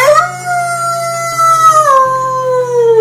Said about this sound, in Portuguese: Estava tudo quieto Apenas o som sinistro do vento e dos uivos dos lobos ecoam pela noite escura.